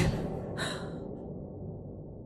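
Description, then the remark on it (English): A single sharp, ragged gasp for breath, fairly loud, trailing into low rasping breathing over a rumbling background, from a man lying struck down after being hit on the head with a book. “He's lying there gasping now, but I can still hear laughter.”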